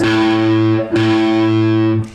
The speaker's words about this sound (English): But what I'm going to ask you to do, and this is the key to speed when combined with hammers and pull-offs, it'll all become clear shortly. Um, I want you to pluck downwards and upwards with the plectrum like this.